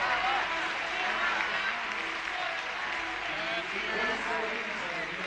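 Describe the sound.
Sustained audience applause, a dense, steady wash of many hands clapping at an even loudness for several seconds, with a faint murmur of voices mixed in.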